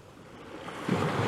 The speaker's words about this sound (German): Und genieß das Wellenrauschen im Hintergrund. Wie wunderbar sich das anhört.